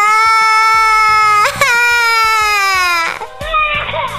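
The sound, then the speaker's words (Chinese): A small child wails loudly in long, high-pitched sustained cries, with brief catches of breath between them, the crying continuing strained and insistent to the end. “他的哭声好响好响啊，惊动了所有的家人。”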